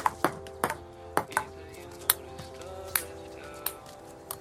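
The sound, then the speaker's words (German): Crisp table tennis ball clicks bounce back and forth as a father and daughter play a quick, steady rally, about a dozen sharp pocks alternating between paddle and table over a faint, humming background. “In der Szene spielen Vater und Tochter erst Tischtennis und tauchen dann ab im Hotel Pool”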